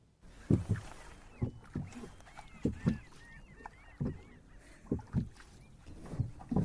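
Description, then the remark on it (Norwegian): Steady, rhythmic oar strokes of a man rowing a boat on a calm fjord in Bindalen, Helgeland, Norway, recorded in 2009, each pull a soft knock and splash, repeating about once a second, with faint bird calls chirping in the background. “Fjorden ligger blank, bare lyden av fugl å høre, og åretakene fra rokaren, mannen til vår forteller,”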